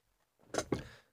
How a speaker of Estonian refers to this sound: oih, tool kriuksus ka.